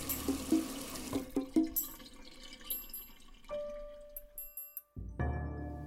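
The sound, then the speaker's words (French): Tap water runs steadily while dishes are washed, with splashing, light clinks of crockery and a brief pause before the flow surges back strongly at the end. No one speaks. “Pendant votre vaisselle, le robinet coule à flot.”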